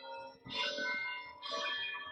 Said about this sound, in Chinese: 这个钟声会不会被录进去？我觉得这是教堂比较浪漫的一点，把钟声听完吧。